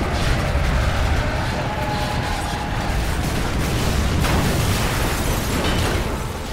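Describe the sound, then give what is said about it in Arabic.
A loud airplane crash explosion effect for a flight that crashed in the French Alps, deliberately caused by the co-pilot: a heavy booming blast that swells into a sustained, roaring wall of rumbling debris noise for several seconds, with no voices. “تحطمت الرحلة في منطقة سلسلة جبال الألب الفرنسية”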